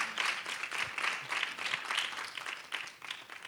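An audience gives a round of applause for the speakers after a discussion, a steady, dense wash of many hands clapping at once with a bright, crackling texture that holds fairly even throughout and eases slightly toward the end.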